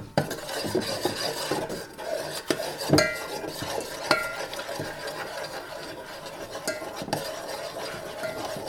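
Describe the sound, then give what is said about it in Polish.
Two spoonfuls of cream being stirred with small movements into a mixture containing flour and baking powder in a pot until it is uniform: steady scraping and rubbing of a utensil against the pot, with occasional sharper clinks, continuous without any talking. “I też takimi drobnymi ruchami rozprowadzam sobie całość na jednolitą masę.”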